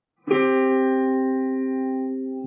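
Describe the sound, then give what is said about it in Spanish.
Two sustained musical notes sound together as a harmonic interval, struck at once and ringing steadily with a slow fade over a couple of seconds, clear with no voices. “y distingas que son dos cosas que están sonando y las puedas separar, o sea, por ti misma, ¿no?”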